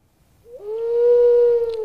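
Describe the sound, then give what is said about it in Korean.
A single drawn-out owl hoot, played again as a quiz sound on a radio show, slides up briefly and then holds a steady, clear tone for over a second, fairly loud, with no talking around it. “부엉이 소리 한번 더 들을까요?”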